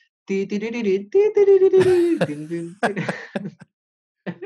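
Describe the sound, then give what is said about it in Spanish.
A voice imitates an old cellphone ringtone, loud: a quick run of short rhythmic sung notes, then a longer held and sliding tone, ending in a few choppy bursts. “Y, creo que cuando te llamaban uno de los tonos que había era”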